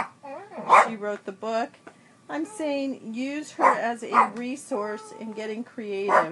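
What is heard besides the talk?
dog barking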